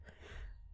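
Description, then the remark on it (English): A brief snuffling burst from a dog in the background, a breathy, noisy sniff-snort lasting under a second with no voices. “Um, I don't know if you can hear my dog snuffling in the background.”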